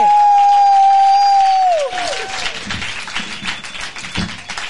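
A long, steady sung note holds for nearly two seconds, then slides downward and fades, giving way to a burst of audience applause: dense, crackling clapping that continues at moderate loudness to the end.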